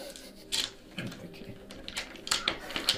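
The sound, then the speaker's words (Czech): A few sharp, clacking knocks of dice tumbling onto a hard surface, scattered irregularly with brief rattles between them, moderately loud, as a stuck die is rerolled. “Tohle je zaseklá jedna mm-hmm. kostka, tak ještě přehodím.”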